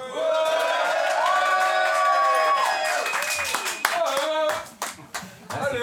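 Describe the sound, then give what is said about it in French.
A crowd claps and cheers loudly to call back latecomers, with sustained whooping voices rising over the noise at first, then dense, rapid applause continuing to the end. “On va faire un maximum de bruit pour rappeler les retards”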